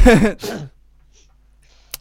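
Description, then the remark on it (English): A short, awkward cough in two quick bursts right at the start, fairly loud, then near silence with a faint click at the end. “You just sort of coughed awkwardly.”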